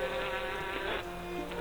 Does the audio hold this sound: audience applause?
no